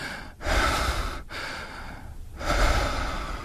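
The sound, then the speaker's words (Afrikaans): A voice demonstrates quick, shallow, panicky breathing into a microphone as an example of anxious breathing: three rushed breathy bursts of inhaling and exhaling separated by brief pauses, loud and airy with no words. “Soos um as ek 'n geluid kan maak in die mikrofoon dit sal benoud wees”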